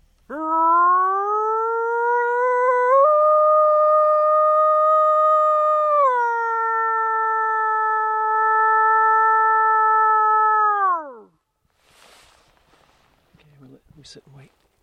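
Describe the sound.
A man imitates a wolf, hands cupped together and head tilted back, on a ridge in a forest of stumps, giving one long, loud, sustained howl that rises, steps up, then dips and holds steady before sliding down and fading, followed by faint rustling.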